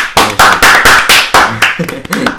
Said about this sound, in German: Kriege ich dafür einen Applaus von dir?